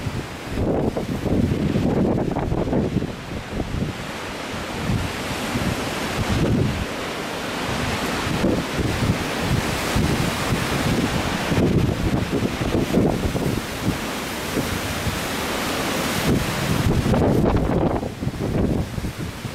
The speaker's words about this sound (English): Now, these storms are not uncommon as the wind comes over the high hills into this narrow little valley.